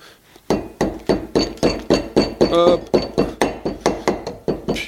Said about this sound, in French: là, on va goûter umami, donc qui est super galère à ouvrir. Déjà, je vais essayer d'enlever la cire là.